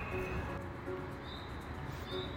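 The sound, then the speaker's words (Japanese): Faint birds sing outdoors in Los Angeles, a few short, high chirps rising over a steady low background hum, with no one talking. “鳥のさえずり聞こえますか”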